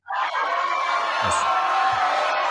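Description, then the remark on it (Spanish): A loud crowd bursts into cheering and whooping almost at once, a dense, sustained roar of many voices that holds steady for a couple of seconds without letting up. “Eh, me han faltado unos aplausos o algo.”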